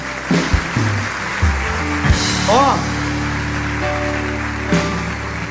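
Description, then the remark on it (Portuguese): An audience claps together in a steady, dense wash of applause, with sustained musical tones beneath and a brief voice calling out. “Igreja, Pode bater palmas.”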